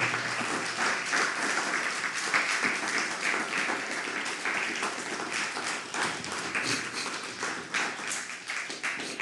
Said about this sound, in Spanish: Así que, ¿por qué no le das un fuerte aplauso al Padre Eterno, que todo lo puede?